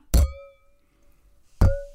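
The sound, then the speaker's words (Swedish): Drinking glasses clink together twice in a toast, about a second and a half apart. Each hit is loud and sharp, followed by a bright ringing tone that slowly fades, with no talking. “Dina skålar låter alltid så jäkla hårt.”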